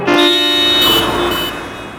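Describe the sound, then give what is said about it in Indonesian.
Several car horns blare together at someone stepping off the curb onto the road, a loud, sustained, overlapping chorus of honking that lasts about two seconds before tapering slightly, with no voices present. “klakson-klakson serentak membentaknya.”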